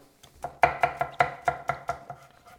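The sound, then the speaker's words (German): A knife finely chops garlic on a cutting board in a quick, steady rhythm of about ten sharp taps, each with a faint ringing tone. No one speaks. “So, ich werde die jetzt einfach fein hacken.”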